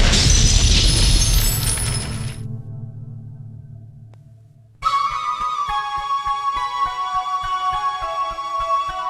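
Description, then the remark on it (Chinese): A heavy bagua (eight-trigram) stone falls from the top of a tower and crashes down in a loud, rough burst of noise for about two seconds, a low rumble fading after it, then sustained tonal music begins. “从塔顶落下的八卦石，正砸在月如的头顶”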